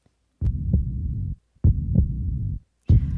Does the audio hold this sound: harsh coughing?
no